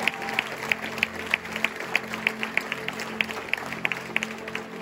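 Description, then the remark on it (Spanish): An audience applauds the blood of Jesus in a steady, rhythmic beat, sharp claps landing roughly three times a second at a moderate level over a low, constant hum, with no voices. “Alguien le puede dar un aplauso a la sangre de Jesús.”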